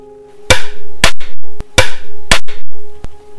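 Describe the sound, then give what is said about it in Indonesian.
Loud, sharp knocks strike a hard floor outside a bedroom in an uneven rhythm, two heavy thuds followed by lighter taps, repeating twice with a faint resonant ring beneath; no voices. “Persis seperti kemarin, sebuah suara ketukan lantai terdengar dari luar kamar.”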